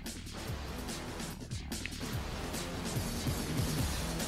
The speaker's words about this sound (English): And the rest of the soundtrack kind of sounds like this garbage 90s techno action movie music. Yeah, but I, I, I can dig it. I like the music way better than I like the gameplay.